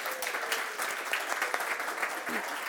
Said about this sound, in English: But before he does, could we just give our helpers a round of applause?